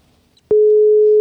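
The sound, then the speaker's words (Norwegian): After a brief near-silent moment, a loud, steady electronic ringing tone of an outgoing phone call starts abruptly and holds at one unwavering pitch until the end. “Eh, nå ringer det snart her.”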